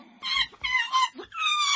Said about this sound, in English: What's that? It's a monkey.